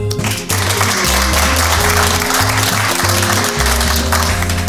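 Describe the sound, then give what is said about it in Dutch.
An audience applauds steadily for the whole stretch, a dense, crackling wash of many hands clapping at once, with low sustained musical tones humming underneath. “dit heb ik er dus niet ingeknipt. Het is live publiek.”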